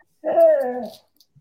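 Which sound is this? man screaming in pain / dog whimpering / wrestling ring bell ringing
dog whimpering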